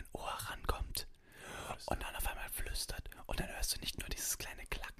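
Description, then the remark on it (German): Soft, breathy ASMR whispering runs steadily through the whole stretch, airy and hissy with little voiced tone, punctuated by brief pauses and crisp consonant clicks, at a hushed, intimate level. “ASMR ist einfach nur, ich glaube, es ist nicht nur Schmatzen, sondern auch Flüstern.”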